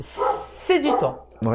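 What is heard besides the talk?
dog barking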